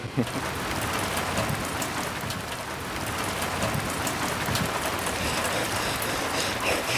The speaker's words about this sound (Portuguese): E logo a seguir, baralhada por súbitos ventos cruzados, quentes e frios, atiçados por relâmpagos metálicos, a chuva começou a escorrer com força pela cidade mas sem saber por onde, e muito mais água chegava pelos leios que desciam das outras colinas